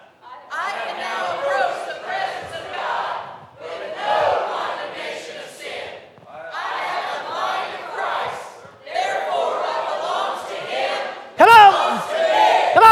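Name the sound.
audience shouting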